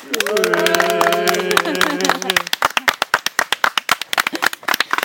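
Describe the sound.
Steady, rhythmic hand clapping as a closing ovation, with voices cheering and shouting over the first half before the crisp, evenly spaced claps continue on their own.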